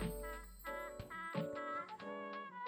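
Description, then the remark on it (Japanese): Instrumental background music routed through Audio Hijack plays on its own, growing louder, with bright sustained chords and bell-like notes striking in a loose, steady rhythm at a fairly full level, with no voices. “こういうね、オーディオハイジャックを使うことで、今、音がミュージックがかなり大きくなってきましたけれども、こういうことができるようになったり、えー、しております。”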